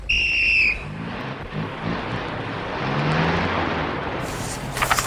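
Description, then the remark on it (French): A brief shrill whistle, then a convoy of seven old expedition cars with trailers rumbling off together at dawn on 4 April 1931 from Beirut onto the road to Damascus, their engines a loud, steady roar filling the scene, with a few sharp clatters near the end. “Après un long circuit dans les sables dorés de la plage, les sept voitures, suivies de leurs remorques, radiateurs face à l'est, se sont engagées sur la route de Damas.”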